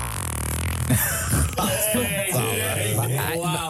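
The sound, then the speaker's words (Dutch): A long, buzzy fart sound effect, low and rasping with a wavering pitch, sputtering in a few bursts over several seconds. No one talks over it. “En ik had eventjes een scheet-effect nodig.”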